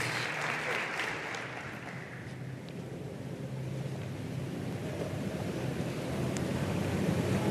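An audience applauds steadily to welcome a member of a church community who is about to share his story. Many hands clap in a dense, even wash of sound that holds at a constant level from start to finish, with no voices over it.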